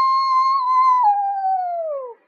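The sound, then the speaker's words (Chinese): A single long wolf howl, a steady mid-pitched tone held for about two seconds that slides downward and fades at the end, heard alone with no talking. The howl comes from a pack of wolves. “He heard a howling sound.”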